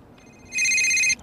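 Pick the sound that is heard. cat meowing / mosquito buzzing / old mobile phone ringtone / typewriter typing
old mobile phone ringtone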